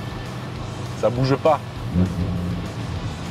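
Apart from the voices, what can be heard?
sports car engine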